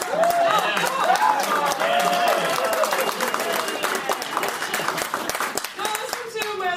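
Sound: audience clapping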